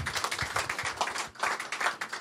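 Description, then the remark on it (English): An audience applauding a panel, a dense, steady patter of many hands clapping at once, moderately loud, with no voices over it for the whole stretch. “A round of applause for our panel.”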